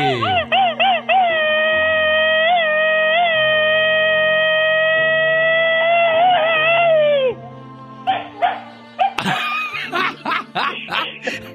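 An angry female dog lets out a few quick yips, then a long, steady, wavering howl, before breaking into short whimpers and yelps, with people laughing briefly near the end.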